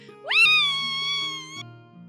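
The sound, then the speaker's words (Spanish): A single excited, high-pitched 'wheee' squeal swoops sharply upward and holds for over a second before cutting off, loud over a soft, steady low background drone. “pero eso pareces escuchar, un Wii muy emocionado.”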